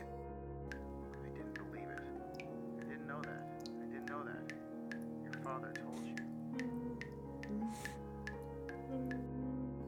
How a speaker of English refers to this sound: Though it was like a whisper, probably my own breathing echoing in silence. Or just another case of the sound of flowing water playing tricks on the mind. This is what it sounded like.